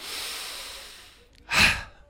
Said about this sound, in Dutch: En dan doe ik tien keer de nirvana-ademhaling. Dat is een langzame uitademing. Ja. Dus een, eh, noemen ze ook een waterademhaling. Dus kan je die even doen? Ja, dus dat is inademen. En dan heel langzaam door de neus of door de mond tuitje